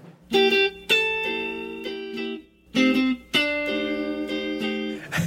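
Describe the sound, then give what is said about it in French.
A short, improvised, studio-recorded musical jingle of bright, distorted guitar-like chords played in two loud phrases separated by a brief pause, sustained, with no voices. “Jingle son canon.”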